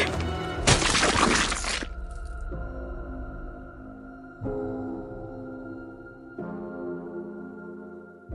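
A loud, harsh crack of a grandmother's skull hitting the ground in a garden after she jumped from a balcony, a dense crunching burst lasting about a second, followed by low sustained droning tones that swell in three steps.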